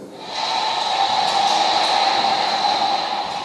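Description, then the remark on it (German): A steady, continuous rolling rumble of a recorded rolling-suitcase sample played from six loudspeakers spread over about five meters in an exhibition, triggered as someone walks past, fairly loud, holding evenly for a few seconds with no talking. “dann so ein kurzes Sample von einem Rollkoffer ähm, abgespielt wird”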